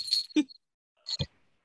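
Jingling bells ring out in two short bursts, a bright, high metallic shimmer each time, with a soft low thump in each burst and silence in between.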